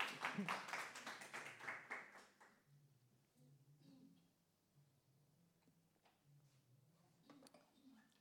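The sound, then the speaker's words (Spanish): An audience applauds loudly for the Lord for about two and a half seconds, a dense burst of many hands clapping that quickly dies away into quiet, with a soft voice speaking. “Un fuerte aplauso para nuestro Señor y vamos a orar.”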